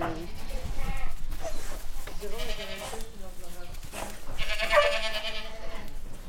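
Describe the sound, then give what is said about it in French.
Young goat kids, some born that morning, bleat repeatedly in wavering, high-pitched cries that overlap one another inside a goat barn, out of the wind, with a steady background of rustling and shuffling throughout. “Voilà les viquettes. Il y a les petits derniers qui sont nés euh, ce matin.”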